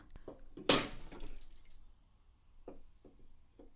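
A sudden splash of liquid being accidentally spilled, followed by a scattering of soft drips and small droplet impacts at irregular intervals, with no talking.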